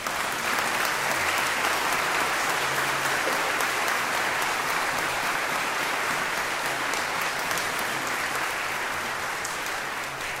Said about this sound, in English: First of all, let me say a special thank you to our choirs and to our music groups for all of their hard work in making this service a tremendous success today and a blessing to us all. Thank you all very, very much. Applause is welcome.